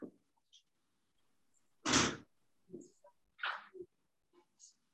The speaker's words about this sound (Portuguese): Espera um pouquinho, eu preciso abrir uma porta aqui.